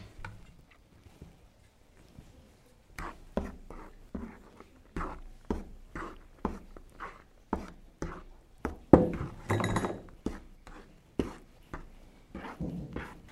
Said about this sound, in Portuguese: Agora nós vamos colocar a farinha. Vamos a farinha para amassar o pão.